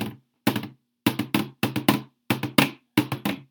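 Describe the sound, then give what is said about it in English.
Drums struck with sticks in a quick, rhythmic pattern of short groups of two or three hits, each strike sharp and resonant with a brief ringing decay, played alone without talking. “So first, you're gonna make the audience get to hear drums.”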